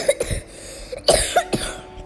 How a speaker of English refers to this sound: That's a third cough.